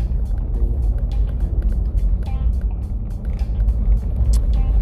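A tow truck with a crane arm at the back rumbles by in Kyiv, its deep engine drone steady and loud throughout, with faint clanks and hisses over the low roar of traffic.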